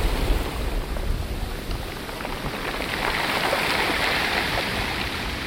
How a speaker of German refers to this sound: Wenn die Brandung auf Kieselsteine trifft, wie hier bei den Nadelfelsen in Tabarka in Nordtunesien, dann ist das ein Ohrenblick, den man gerne mit nach Hause nehmen möchte. Denn einen ähnlichen Klang findet man eher selten.